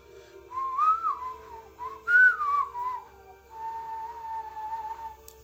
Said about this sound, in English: Not terrible. It's a pretty good whistle.